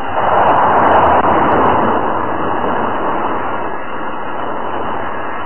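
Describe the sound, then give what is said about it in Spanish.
Part of a stone vault collapses amid a shower of earth, with huge stone blocks falling: a loud, sustained rumbling roar, dense and continuous throughout, with a heavy low crash and scattered crackling debris that eases only slightly toward the end. “se aparta ágilmente, justo cuando parte de la bóveda se derrumba en medio de una lluvia de tierra.”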